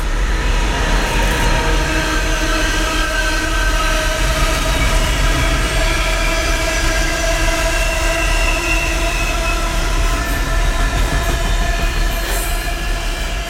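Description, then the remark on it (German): A train rolls past on the rails, a loud, steady rumble with a sustained metallic whine from the wheels that holds unbroken for the whole stretch. “Der will vor den Zug springen.”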